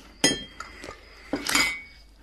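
Teacups clink against saucers in a few bright taps, a quick pair of knocks followed by a fuller rattle of china as the tea is poured and set down, with no voices.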